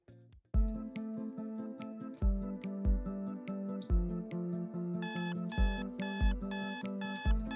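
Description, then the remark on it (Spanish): An alarm clock rings at 5 a.m. with a bright, repeating electronic melody, loud, with steady rhythmic tones and sharper bursts joining in partway through. No one speaks. “5 a.m. suena el despertador.”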